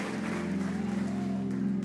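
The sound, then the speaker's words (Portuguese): An audience applauds the Lord for the word "Courage, it is I, do not be afraid," clapping steadily for about two seconds, a dense even patter of many hands over a low sustained hum. “Você pode aplaudir o Senhor por essa palavra: Coragem, sou eu, não tenha medo.”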